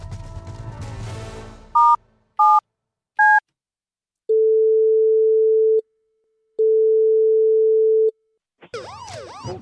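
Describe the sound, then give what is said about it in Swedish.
Three quick keypad beeps as someone dials a phone number ending in three, then two long steady phone tones separated by a silent gap, clear, with muffled rustling noise before and a garbled burst after. “då ringer jag med tre på slutet istället.”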